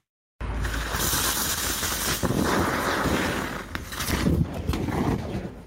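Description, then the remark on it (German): A lithium-ion battery bursts into flame with a loud, steady roaring hiss and crackle, sparks spraying continuously for several seconds, with sharp pops and surges in intensity. “So hört es sich an, wenn ein Lithium-Ionen-Akku in Brand gerät, zum Beispiel weil er durchbohrt oder zusammengepresst wurde.”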